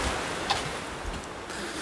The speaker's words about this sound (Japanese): おっと 雨が非常に降ってきましたねこっちに隠れよっか